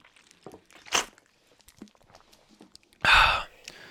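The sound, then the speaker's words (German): Quiet handling clicks and a short breathy burst, then a louder whooshing exhale or gulp after drinking from a soft drink bottle, with no one speaking. “Äh, ich nehme auch einen Schluck aus meiner Softdrinkflasche.”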